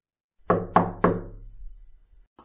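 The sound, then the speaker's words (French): Three sharp, evenly spaced knocks on a wooden door, fairly loud, each ringing out with a low resonant decay, followed by quiet. “maintenant, je vais ouvrir la porte pour aller à la rencontre de Sarah”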